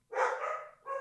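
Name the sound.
puppy barking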